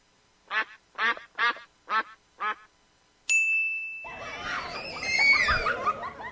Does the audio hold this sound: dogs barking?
no